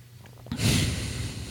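A single sharp inhale through the nose begins abruptly about halfway in and continues as a steady, airy hiss with a low rumble underneath, with no talking.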